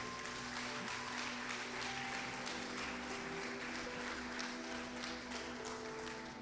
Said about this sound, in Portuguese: Vamos aplaudir Jesus.